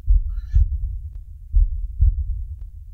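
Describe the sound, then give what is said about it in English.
A deep, muffled heartbeat thumps steadily, two lub-dub beats with a short pause between each pair, heavy low thuds against a quiet background. “And the moment you wrap your hands around it, there's like almost like the the feeling the sound of a heartbeat”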